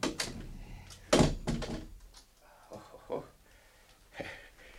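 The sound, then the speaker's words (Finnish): A door swings open and shuts as someone leaves, with a sharp thud and rattle early on, followed by a few softer knocks and shuffles as it settles, and faint voices in the background. “Osaan erottaa oven vielä ikkunasta ilman apuakin.”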